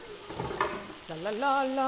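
Chicken frying in a pan, a steady crackling sizzle with bursts of spattering, and a voice speaking over it during the second half.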